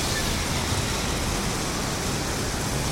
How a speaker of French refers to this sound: en attendant que les trompes d'eau s'arrêtent